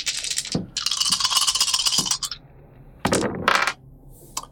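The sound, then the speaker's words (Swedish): Dice, rolled for a weaponsmith check while making a weapon from scrap, clatter and rattle across a hard surface in two bursts, a long rolling tumble followed by a shorter clatter, with a couple of sharp ticks as they settle. “Du kan slå ett slag på eh, vad är det, vapen...”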